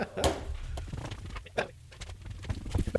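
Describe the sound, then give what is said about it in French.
A front door being opened after someone rings at it, with a few quiet knocks and clunks of handling and shuffling steps spread over a few seconds, fairly soft. “sonne à la porte. Attends, je vais l'ouvrir, j'arrive.”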